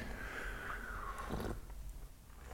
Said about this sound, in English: Hopefully, those slurping sounds aren't annoying. I can imagine they're probably not all too pleasant, so we'll try to keep that down to a minimum.